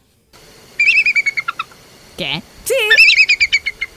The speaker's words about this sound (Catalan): Doncs resulta que no, que vivim enganyats, que una àliga sona així.